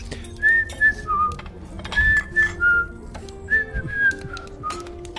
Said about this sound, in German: Und dann äh, mache ich beschämt. die Tür auf äh, hinter mir, also dass die rausgehen können, ganz entspannt und pfeife vor mich hin währenddessen.